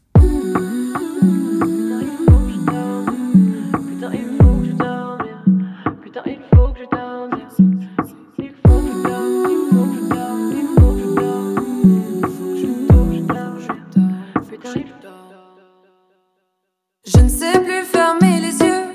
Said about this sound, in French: Avec ce disque, elle a concocté un puissant puissant cocktail à, à base de rap, d'électro et de musiques africaines, de textes autobiographiques sans filtre et de mélodies pop.